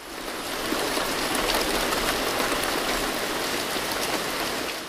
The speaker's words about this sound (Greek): Αλλά, αλλά μαζί με τι μπουρμπουλήθρε ξαφνικά άρχισε να βρέχει.